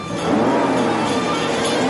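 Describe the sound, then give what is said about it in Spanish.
Civil Guard officers in a Renault 4L chase a Volvo, with a loud, steady roar of engines and road noise that swells in quickly and holds for the whole moment, with no voices. “Los guardias persiguen al Volvo en un Renault 4L. Pasan ante el coche de Pazos.”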